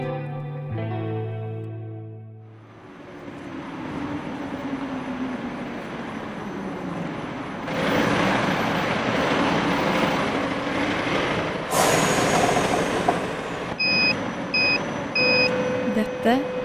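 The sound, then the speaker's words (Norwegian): Steady city street traffic on Pilestredet on a Monday late morning rumbles with passing vehicles and engine noise, a louder surge swelling midway, and a few short repeated reversing beeps cutting through near the end. “lyden av pilestrevet mandag formiddag.”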